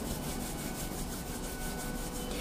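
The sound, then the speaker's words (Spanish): Palms of hands rubbing briskly together, a steady swishing friction with quick rhythmic back-and-forth strokes, about four per second, soft and continuous with no voices. “Y tan solo froto las palmas de mis manos, de las manos, imaginándonos allí alrededor de ese fuego”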